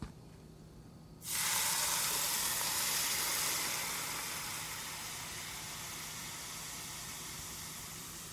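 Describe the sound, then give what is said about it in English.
A sudden loud burst of sizzling as hot oil at about 340 degrees is poured over aromatics and a spice mix in a bowl, a dense crackling hiss that holds strong for a few seconds, then settles into a steady, slightly quieter sizzle with no talking. “This will steam up a lot, so make sure you're using a bowl that's big enough for all your aromatics and you are not putting your face directly on top because then you'll get a lot of steam in your face.”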